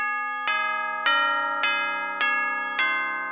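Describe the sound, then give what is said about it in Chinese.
A church bell strikes twelve at night, tolling in slow, even strokes, about six rich, ringing chimes roughly half a second apart, each tone sustaining and overlapping the next. No voices. “夜晚很快就来临了，当教堂的钟敲了十二下，”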